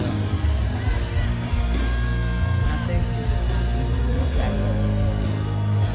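A woman yells loudly from within a dense, roaring concert crowd, her shout rising briefly above the steady wash of live music and cheering.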